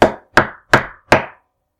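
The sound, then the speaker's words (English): Four firm knocks on a door in a steady, evenly spaced rhythm, each a sharp woody thud that fades quickly, with no voices or other sounds around them. “We heard a knock at the door.”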